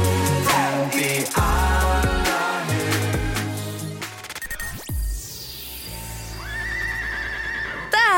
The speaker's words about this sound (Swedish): här den här gnäggade hästen äntligen.